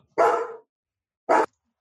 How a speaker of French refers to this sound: Mon chien.